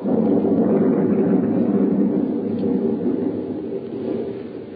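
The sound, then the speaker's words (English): A deep, continuous rumble of thunder rolls on steadily at fairly high volume, with no sharp cracks and no voices. “There was thunder and lightning around me, too”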